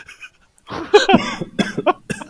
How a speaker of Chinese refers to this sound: 你咳嗽声真的够大声，我觉得很棒，你看你讲话就用这个声音， 你这个吐槽好，这个梗我我我是觉得很好， 因为我真的觉得那个声音够大，就是可能我就不用调那么多